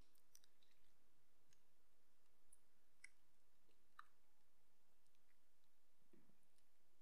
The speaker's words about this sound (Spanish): perdón, que estaba tomando agua.